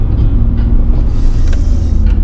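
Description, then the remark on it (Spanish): Steady low rumble of road noise from inside a moving car carrying many people, a loud continuous drone with faint brief clicks and rattles on top, no talking. “Tengo, vengo con mucha gente en el auto.”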